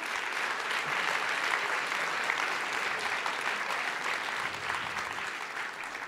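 Steady audience applause fills the whole stretch, a dense, even patter of many hands clapping at a constant level with no voices on top.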